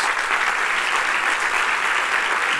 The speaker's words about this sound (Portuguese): Uma salva de palmas a Jesus.